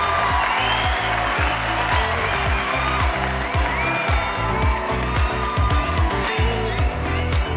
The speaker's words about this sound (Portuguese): E assim terminamos esse bloco com uma salva de palmas!